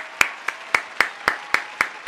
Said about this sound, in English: Clap.